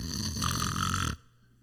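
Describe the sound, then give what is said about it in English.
A single loud, rasping snore, a rough buzzing inhale lasting about a second, that cuts off abruptly into quiet. No talking. “Do you know what it's like to be laying there quietly, enjoying some good sleep, and your husband or your wife is just sawing some logs?”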